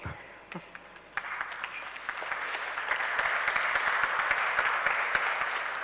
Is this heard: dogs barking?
no